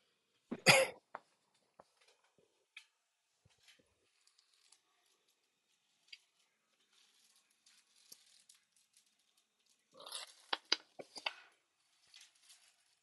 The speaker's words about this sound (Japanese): なんか咳出るから咳止め飲むか。咳止め。